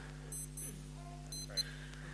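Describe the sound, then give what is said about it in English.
A wristwatch alarm set for 12 o'clock beeps in short high-pitched bursts, two quick pairs of electronic chirps, over a low steady hum with faint background voice. “I've set an alarm for 12 o'clock, okay, every single day to pray for my non Christian friends every day.”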